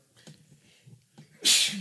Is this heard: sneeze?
yes